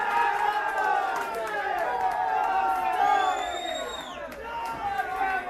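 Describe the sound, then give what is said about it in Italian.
Football fans in bars cheer and shout together during the Champions League final in a steady, loud roar of overlapping voices, with a high whistle-like whoop gliding down partway through. “e la finale di Champions League in tutti i bar.”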